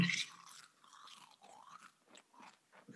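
Someone munches potato chips up close, a loud crinkly rustle at the start followed by a steady series of crisp crunching bites and chewing, with no one talking.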